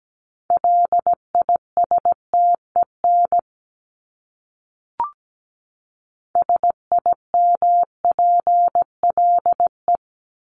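A steady mid-pitched Morse code tone keys out dots and dashes of common words at 17 words per minute in two bursts, separated by a short pause with a faint click. No voices.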